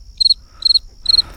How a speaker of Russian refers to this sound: Я просыпаюсь под сверчка. Для того, чтобы не вздрагивать, не вскакивать.